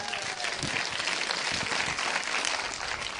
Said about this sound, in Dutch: Mooi, hè? Dit is zoals God het bedoeld heeft. Geef ze maar even een applaus, die twee.